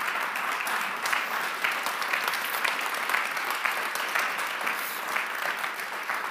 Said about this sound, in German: Danke für das Engagement. Ich denke, da gibt es nochmal einen herzlichen Applaus. Das ist großartig.